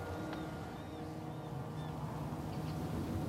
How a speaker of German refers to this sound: Der Garten ist verwaist, außer ein paar Vögeln in den Bäumen ringsum und den immerwährenden Schreien der Möwen ist nichts zu hören.